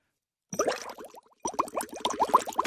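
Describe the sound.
Steady bubbling as air is blown through water in a glass, like a water pipe: rapid gurgling plops in two bursts separated by a brief pause, with no talking; the water was poured from a plastic bottle into the glass.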